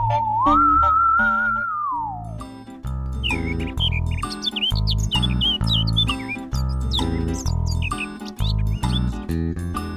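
birds chirping

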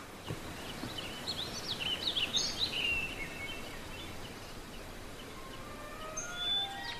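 birds chirping

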